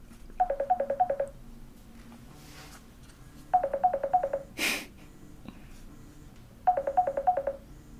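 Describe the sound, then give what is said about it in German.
A phone ringtone of an incoming call plays in three short bursts of rapid electronic trilling pulses, each about a second long, with pauses between; a brief breathy noise sounds between the second and third bursts. “Ja, kann man das auch ausschalten? Gut. Ja, man kann ja Anrufe immer noch ablehnen.”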